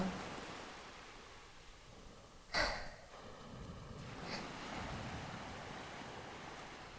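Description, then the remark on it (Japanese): Steady, rushing surf rolls in, with one sharp crash of breaking water a few seconds in and a softer swell later, all under a continuous wash of wind and spray. “波音の先で小さくなった影が、船を操る要の胸に、七海さんが寄りすがったように見えたのは、錯覚だったのかもしれない。”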